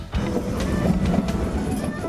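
A train rolls steadily along the rails with a continuous rumbling clickety-clack, loud, with no voices over it.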